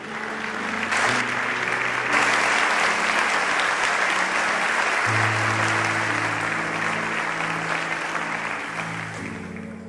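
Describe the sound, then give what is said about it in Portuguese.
An audience breaks into sustained, dense applause for the Lord, lasting the whole stretch, with a steady organ or keyboard chord progression sounding beneath the clapping. “Alguém pode dar um aplauso ao Senhor por isso?”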